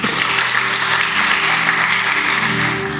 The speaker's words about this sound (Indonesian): Kasih tepuk tangan buat istri.